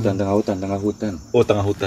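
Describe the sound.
Real crickets in a garden chirp steadily in the background, faint and continuous beneath people talking, the insect trill running under the voices throughout.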